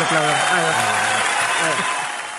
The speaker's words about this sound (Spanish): ah, ¿dónde tengo los aplausos?